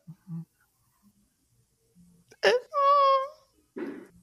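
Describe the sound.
A single voice sings one long, wavering ballad-style note in a movie trailer, the soundtrack of the film The Bodyguard, after a sharp burst and some brief quiet sounds, with a short rough noise following it.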